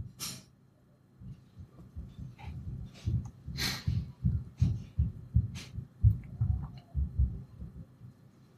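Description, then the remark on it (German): A hard-hitting hip-hop beat plays without vocals: heavy, booming bass kicks pound in a steady rhythm, with occasional crisp, hissy hits cutting through. The whole mix sounds somewhat muffled and low in volume. “Dieser, dieser Beat ist einfach, der klatscht so heftig rein.”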